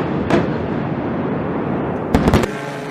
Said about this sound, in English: First, we heard a crash of lightning. I thought it was lightning. Fire. And this is mixed in with a controlled demolition.